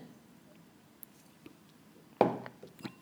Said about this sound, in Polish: I tym samym wezmę łyka wody.